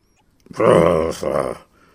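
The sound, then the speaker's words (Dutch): A man's voice imitates an angry growl as the character Lord Blister in a Dutch story reading: one throaty snarl lasting about a second, with a brief break in the middle before it trails off into silence. “gromde Lord Blister.”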